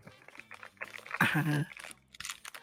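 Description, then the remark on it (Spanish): Crackly paper being crinkled as ASMR sounds for sleep, in irregular bursts, swelling to a louder rustling flurry midway before easing off, with a soft voice murmuring faintly underneath. “A ver, vázale como estos sonidos, ¿no? No, vaya, voy a poner. No, sí, sí, con el papel.”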